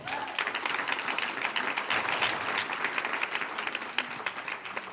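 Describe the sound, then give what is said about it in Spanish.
A church audience applauds the Lord steadily, many hands clapping in a dense, continuous patter that holds at an even, fairly loud level for the full stretch without any talking. “Un aplauso al Señor.”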